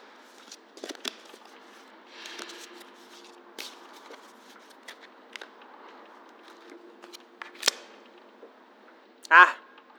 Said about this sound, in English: Shuffle, then, when you're ready. Pick a single card.